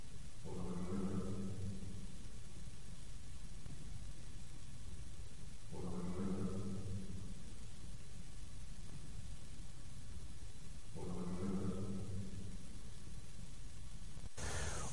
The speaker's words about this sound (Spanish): la obtuvimos en Penáguila, en la Torre Sena. Eh, descubrí el enclave por, por casualidad, buscando otros. Y la obtuvimos exactamente dentro de la capilla eh, por eso se escucha un poco de eco. Y dice, hola, ven, entra.